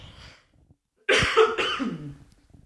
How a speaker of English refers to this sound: Excuse me while I cough up a lung.